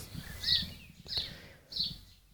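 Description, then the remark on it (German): Three bright, high chirps from birds outdoors, spaced roughly half a second apart over a low, rustling background, with no one speaking. “Ich glaube, ich lasse heute einfach all diese ganzen Vogelgezitscherpausen drin.”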